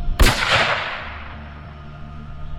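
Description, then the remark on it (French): A single loud shot from an automatic rifle, fired from the back door of a Ford car at a motorcycle patrolman, cracks out sharply, then rings away in a long, fading echo over a low background hum. No voices are heard. “Il lève son fusil automatique et, sans dire un mot, il presse la détente.”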